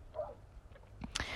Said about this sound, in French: Je suis désolée si vous entendez le chien aboyer. En fait, non, je suis pas désolée. Euh, c'est, ça fait partie un peu du, charme de l'endroit, les petits bruits euh, qui viennent comme ça. Je vous rassure, il aboie pas toute la nuit.